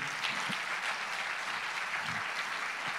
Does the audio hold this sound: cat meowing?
no